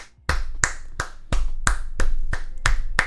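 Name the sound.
clapping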